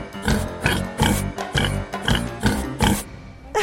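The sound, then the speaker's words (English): A person imitates a pig, making a quick, rhythmic string of loud, nasal oinking grunts, roughly eight in a row with brief gaps between them. “Cue musical break. Oink, oink, oink, oink.”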